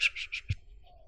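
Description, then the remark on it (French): A voice imitates light wing flapping with four quick, breathy puffs of air in a steady rhythm, ending in a soft low thump. Fairly quiet, with no other sounds. “Et tout ce que vous entendez, c'est le battement d'ailes qui fait.”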